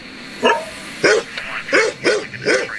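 A dog barks five times in a steady series, the barks sharp and fairly loud, evenly spaced over a few seconds, with no one talking.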